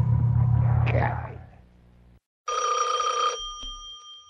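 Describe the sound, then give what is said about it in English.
A low, rumbling whoosh fades out. After a brief silence, a telephone rings loudly in one sustained, shrill burst of about a second before cutting off. “If you are alone, don't answer the phone.”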